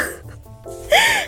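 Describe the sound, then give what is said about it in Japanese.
A can of canned coffee pops open with a short, breathy hiss, quickly followed by a brief voiced exhale or gasp from someone. “缶、コーヒーです。あー、プシューだって。”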